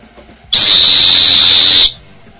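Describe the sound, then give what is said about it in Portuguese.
A single loud, shrill referee's whistle blast held steadily for over a second, a piercing high tone that starts and stops abruptly, with no talking over it. “o apito é um instrumento que deve ser utilizado pelo árbitro com inteligência”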